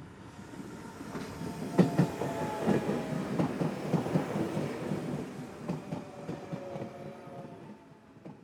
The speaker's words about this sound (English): Like all trains, its purpose is to get you from point A to point B. If you pay slight attention, you can hear the sounds of the carriages jostling each other and feel the jolts